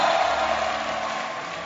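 An audience shouting and clapping together, a dense, steady roar of cheers and applause that holds at an even loudness for the whole short stretch, with no single voice standing out, as they welcome a woman coming up to minister.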